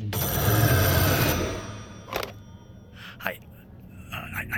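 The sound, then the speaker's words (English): A loud telephone bell rings in a burst of rapid metallic clatter for just over a second, then stops, followed by brief quiet speech. “Even the ring on this one sounds like trouble.”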